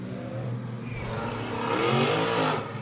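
Race car engines, including cars 24 and 35, roar steadily on the RPM Speedway circuit during Chevrolet urban-challenge qualifying, the pitch rising and falling as the cars accelerate and rev past, loud and continuous with no voices.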